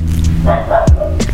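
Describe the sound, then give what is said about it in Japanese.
A dog at the speaker's home barks, a quick run of two or three sharp, fairly loud barks packed into about a second, with no talking over them. “ワンごめんなさいちょっとうち犬がいるんでたまに犬の鳴き声がするかもしれないね”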